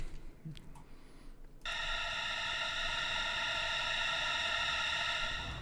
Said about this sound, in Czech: Je to právě že single, který se jmenuje …. Takže já pouštím teda ukázku.